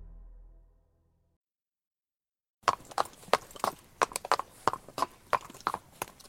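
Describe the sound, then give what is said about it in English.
Hooves of a black Tennessee walking horse stallion clip-clop in a steady, brisk walking rhythm, sharp, beginning after a low rumble fades into a moment of silence. “There once was a horse, a black stallion”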